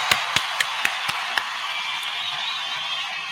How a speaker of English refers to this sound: Um, continue the round of applause though for y'all know who, man.